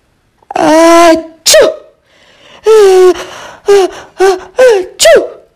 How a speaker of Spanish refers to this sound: La bella durmiente estornudó y estornudó, pero por fin se despertó.